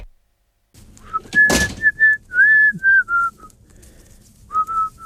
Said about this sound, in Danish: Margrethe Vestager sidder og fløjter, mens jeg indstiller mikrofonerne, så vi kan strikke sammen og tale om magt.